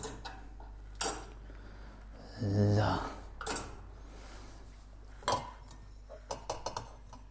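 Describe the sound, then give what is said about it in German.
Plates clatter and clink as they are set down and stacked, a few sharp knocks spread out with a scraping shuffle in between, moderately loud, with no one talking. “Jetzt machen wir die Teller noch da rein.”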